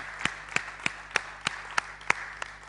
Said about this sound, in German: Komm, lass uns doch dem Herrn einen Applaus geben. Und gebt ihr selber einen Applaus. Gebt euch selber einen Applaus, dass ihr bereit wart, diesen Weg zu gehen.